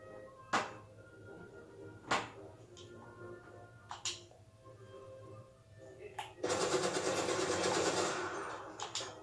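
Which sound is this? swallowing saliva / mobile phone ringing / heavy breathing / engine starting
engine starting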